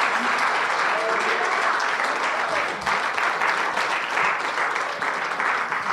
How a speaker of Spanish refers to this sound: Dale un aplauso al Rey de Reyes y Señor de Señor.